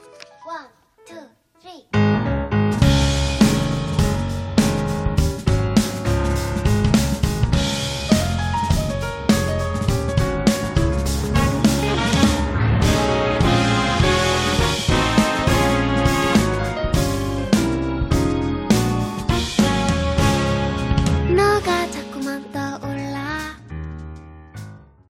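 A bright pop song plays loudly and steadily, with a high, light vocal over dense instrumental backing. It begins after a brief quiet opening and winds down near the end.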